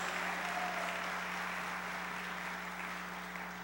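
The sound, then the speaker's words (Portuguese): Sustained applause from a church audience, those who have been born again clapping loudly, a dense, steady wash of clapping that holds loud throughout and fades slightly at the end, with a low constant hum underneath. “Quem aqui já nasceu de novo, aplauda ele bem forte.”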